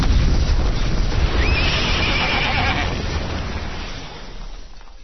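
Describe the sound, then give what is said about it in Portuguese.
A horse lets out one drawn-out, quavering whinny over a steady rumbling background, then the call fades and the noise tapers off toward the end. “O meu pangaré é um cavalo amigo que anda.”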